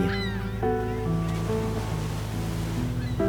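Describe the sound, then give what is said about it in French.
Steady rushing ocean waves and sea wind roar continuously and fairly loudly aboard a boat, with sustained musical tones shifting slowly underneath and no one speaking. “Sur le bateau, Emily Murphy sent le vent marin lui fouetter le visage.”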